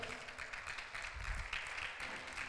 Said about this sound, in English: I'll wait for you. Clap your hands.